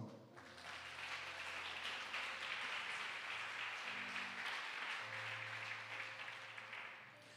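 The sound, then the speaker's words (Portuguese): A church audience breaks into sustained applause for the Lord, a dense steady wash of clapping lasting several seconds, with a low organ or keyboard drone humming underneath and no voices over it. “Aplaude o Senhor.”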